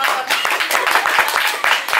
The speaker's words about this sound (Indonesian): tepuk tangan dulu dong ini belakang